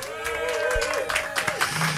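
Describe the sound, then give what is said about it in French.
An audience applauds a band at the start of a live session on Radioactive, in a steady wash of clapping, with a sustained, wavering tone running through it and a voice briefly heard over the noise. “Vous pouvez les applaudir déjà.”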